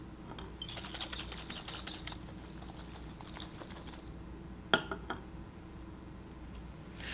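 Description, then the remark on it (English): A glass flask holding a solution with air above it is shaken in a quick, rhythmic series of faint rattling taps for a couple of seconds during an experiment testing air for oxygen, later followed by one sharp clink and a softer tap. “I shake this flask and you see the result.”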